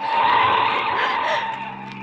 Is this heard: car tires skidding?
yes